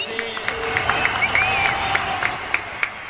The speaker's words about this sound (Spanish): Ahí están los mariachis. Un aplauso para El Mariachi.